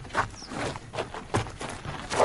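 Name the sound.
running footsteps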